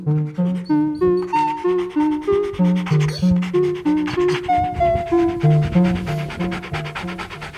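A dog chews a squeaky toy, making rapid, steady squeaks, over twenty high-pitched squeals in a quick rhythm, loud, with faint panting and rubbing between them.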